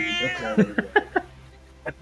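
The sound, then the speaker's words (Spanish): A cat meows, starting with a long drawn-out call followed by a string of short, quick chirping meows and a final brief cry, while the female cat grabs at the speaker. “Esperen que la gata me está agarrando”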